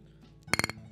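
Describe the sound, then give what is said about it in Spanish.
Glasses clink together in a toast, a quick run of four bright, ringing taps close to the microphone, with a faint low hum of room noise around them. “Salud. Salud. Así, mira, acércalo al micro.”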